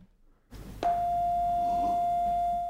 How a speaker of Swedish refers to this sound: Om jag spelar den här tonen till exempel.